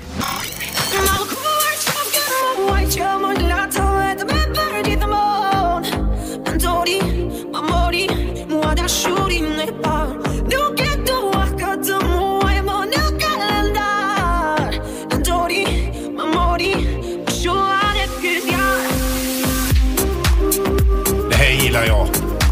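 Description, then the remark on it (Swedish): An Albanian pop song sung by a young woman, with heavily autotuned vocals riding over a steady, thumping beat and synth layers, loud and continuous throughout. “Det är mycket så kallad autotune där i sången.”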